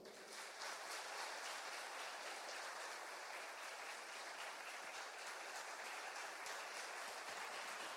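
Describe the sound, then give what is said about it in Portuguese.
An audience at a church service applauds steadily for the Lord, a dense crowd clapping that holds at an even level for several seconds with no one speaking. “Quero um aplauso bem forte para o Senhor.”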